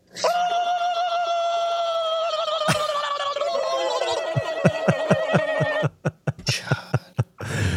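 A man lets out a long, high, strained victory screech held for several seconds, its pitch sagging slightly before breaking into a run of short, choppy bursts, almost like a whinny.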